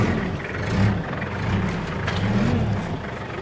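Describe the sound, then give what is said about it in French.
A 4x4's engine revs up and eases off in a couple of rising and falling surges, loud, with a steady rumbling drone throughout and no voices. “C'est comme une voiture, de la 4x4.”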